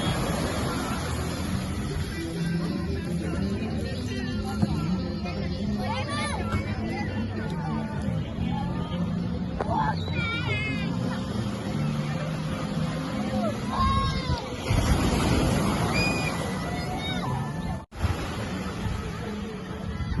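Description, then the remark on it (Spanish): A busy beach at La Boquita in the port of Manzanillo on a sunny day during a red tide, with families and children swimming: a steady wash of surf and water noise under constant crowd chatter, with scattered children's shouts and calls rising from the background throughout. “pero el aroma, el color no es impedimento para que las familias disfruten y pues eh, naden ¿no? en el mar con todo y la marea roja”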